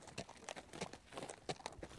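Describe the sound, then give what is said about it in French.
Donkey hooves clip-clop at a steady walking pace as the donkey carries an injured man, with another man walking beside it; a series of crisp, evenly spaced knocks on hard ground, fairly soft, with no voices. “Il le soulève et le charge sur son âne. Ils repartent donc, le Samaritain marchant à côté du blessé.”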